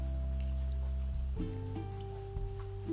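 Steady rain patters and hisses, with a low sustained musical drone and soft tones underneath that shift partway through; no one speaks.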